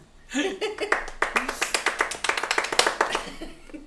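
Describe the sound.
A brief round of applause for a guest being introduced: a quick, steady run of sharp hand claps that builds for a few seconds and then tapers off, with faint voices murmuring underneath.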